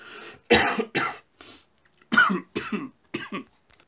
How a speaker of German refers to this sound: oh, Entschuldigung, ich musste jetzt kurz nochmal alles rauslassen. Ähm, also hustentechnisch.